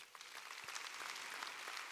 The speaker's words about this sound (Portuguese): Pode aplaudir o Senhor porque é verdade.